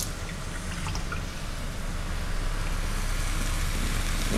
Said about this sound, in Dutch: Ik ga hier koud water in doen en dan ga ik het zo mengen. Wat ik net, de beweging wat ik net deed.